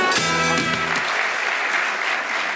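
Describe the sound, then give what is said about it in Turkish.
An audience bursts into steady applause, a dense wash of clapping, briefly mixed with a few harmonic tones at the start before settling into sustained clapping, welcoming award winner İsmail Küçükkaya and the Fox programme Çalar Saat on stage. “Ve kazanan İsmail Küçükkaya ile Çalar Saat alkışlarla kendisini buraya alıyoruz.”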